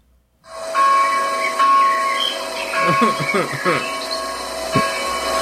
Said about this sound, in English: this this sound is apparently uh, Sunday church ambiance. Do you want to hear to Sunday church ambiance? Yes, please.